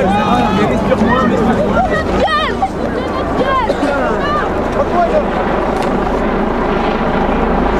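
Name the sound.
police helicopter flying overhead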